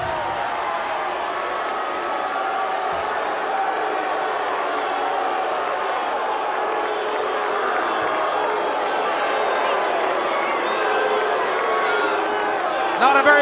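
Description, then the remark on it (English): A large arena crowd at a wrestling event boos a wrestler, the U.S. champion, a dense, sustained roar of voices holding at a loud, even level throughout, with scattered shouts mixed into the wash of noise. “this was, was, the only time the crowd woke up all night, and it was yeah. just a boo Rick Rude”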